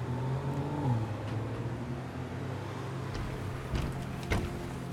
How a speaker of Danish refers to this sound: Så kigger vi lidt ud der på, hvad man nu stadigvæk kan se af trafikken på Østerport.